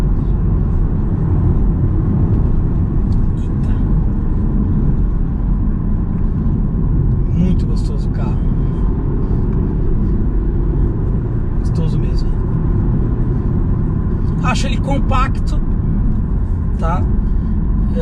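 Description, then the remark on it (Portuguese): A BMW X1 car engine roars as it accelerates, using about 30 kgf of torque and nearly all its horsepower, a loud, deep rumbling drone steady throughout, with brief snatches of voices over it. “Então vamos lá, vou passar aqui, eu vou dar uma aceleradinha aqui, olha lá, 30 quilos de torque, ó, quase toda a potência de cavalos, aê! É BMW, é BMW, não tem jeito.”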